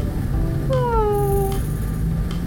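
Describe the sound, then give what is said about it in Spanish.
An old female cat lets out a single drawn-out meow that slides downward in pitch, clear, over a steady low background rumble with no one talking. “Gata vieja, no te mueras, la vamos a encontrar, te lo prometo.”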